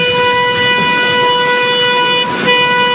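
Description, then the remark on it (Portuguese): A loud, sustained horn blares steadily for several seconds, its layered tones holding without a break, as a railway company's maintenance train sounds its horn while passing a level crossing in the city. “Esse é o trem de manutenção.”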